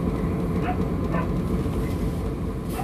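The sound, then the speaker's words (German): A dog barks a few times, the short yaps faint and spaced apart, nearly buried under a constant low rumbling background. “Ah, da ist noch irgendwo ein Hund.”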